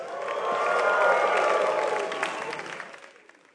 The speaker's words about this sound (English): Somebody give the Lord a shout of praise.